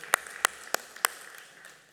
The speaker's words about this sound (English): Amen. You can clap. That's good.